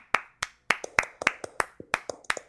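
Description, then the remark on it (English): Hand clapping: about nine or ten sharp, crisp claps in a loose, slightly uneven rhythm, moderately loud and alone, with no talking over them. “Let, let, let's let's clap for that.”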